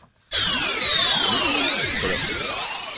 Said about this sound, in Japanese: ああ因果の巻き返し音巻き返ってる感じ、ね、なんかなんか渦巻きが見える感じがするね